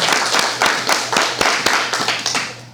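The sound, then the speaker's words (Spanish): Steady applause from an audience applauding God during a sermon, a dense wash of many hands clapping with a few sharper individual claps standing out, holding at a fairly even loudness throughout with no voices. “Yo creo que el Señor merece un aplauso por eso.”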